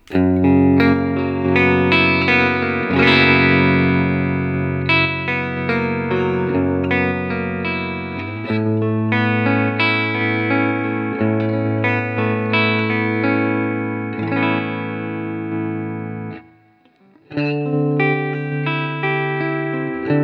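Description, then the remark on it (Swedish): An electric guitar runs through a stereo effects unit set to random mode, its tone changing every few seconds between distorted, chorused and echoing textures, with a brief drop to near silence before the playing resumes. “på random-läget, så nu kommer det lite som, som ah, den vill.”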